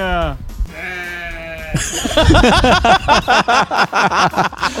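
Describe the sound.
A sheep bleats loudly, with a wavering, drawn-out cry of two or three pulses, before people start talking rapidly over the remaining seconds.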